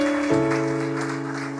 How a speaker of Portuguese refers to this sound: Dá um aplauso bem bonito para ele. Você que está em casa também.